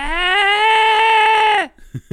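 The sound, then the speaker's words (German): A voice imitates the strange alarm clock from a Die drei ??? classic with one loud, steady, buzzy drone held for about a second and a half that sags in pitch at the end, followed by two short clipped bursts. “kannst du schreien wie der seltsame Wecker?”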